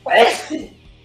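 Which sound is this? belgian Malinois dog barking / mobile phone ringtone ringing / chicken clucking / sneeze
sneeze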